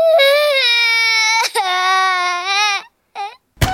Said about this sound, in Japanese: ほら泣くのはやめなさいいいか人というのは感謝の上に成り立っているんだ泣いても何も解決しない